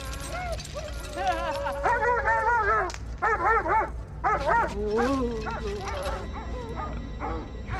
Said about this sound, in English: And so that you know, everybody starts going crazy. Dogs start barking.